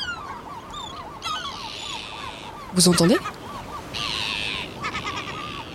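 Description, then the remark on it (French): Calls of many birds flying overhead in formations, all heading in the same direction, overlap in a busy, continuous chorus, with a loud harsh honking burst near the middle and high chattering above; a voice speaks briefly at the start. “Les oiseaux partent tous dans une direction, euh, dans le même sens, et on entend leurs cris.”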